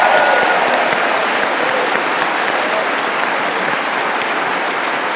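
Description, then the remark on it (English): Loud, steady applause from a large audience at an event, given for the Young America's Foundation for putting on the event, fills the whole stretch, a dense wash of many hands clapping at once with no pauses and no voices standing out. “Um, okay, before we get to the question and answer, a big round of applause, uh, please, for the Young America's Foundation for putting on this amazing yes.”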